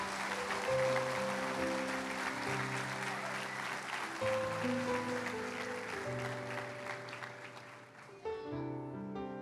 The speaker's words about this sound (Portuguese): Dê uma salva de palmas a Jesus, aleluia.